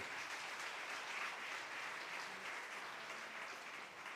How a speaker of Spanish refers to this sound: Entonces, dale un aplauso a nuestro Dios. Dale un aplauso.